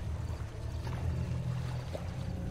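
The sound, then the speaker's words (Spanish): Water churns and sloshes steadily in a river with a deep, rumbling undertone and a few brief splashy bursts, continuous throughout, with no voices. “El sonido de agua agitándose y ruidos diversos.”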